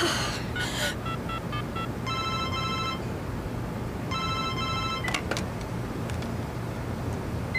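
A mobile phone call, placed by a woman sitting on a street curb, rings out in two repeated electronic tone bursts, preceded by a few short beeps, all over a steady hum of traffic noise.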